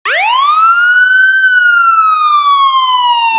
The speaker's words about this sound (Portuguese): Que toquem as sirenes.